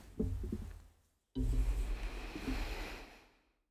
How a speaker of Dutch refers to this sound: Adem een paar keer stevig in door je neus en uit door je mond.